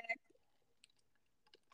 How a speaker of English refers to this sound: Sorry, I had to take a sip of my.